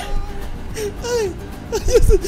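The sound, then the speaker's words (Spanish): A person whimpers and cries in short, wavering, high-pitched sobs that rise and fall, growing a bit louder and more broken toward the end. “ya estoy llorando.”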